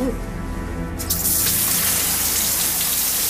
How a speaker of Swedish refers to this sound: Du, kanske ska sätta på duschen här.